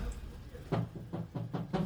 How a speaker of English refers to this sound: knocking on the window.